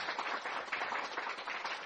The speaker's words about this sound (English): well can you please give them a round of applause thank you so much for being here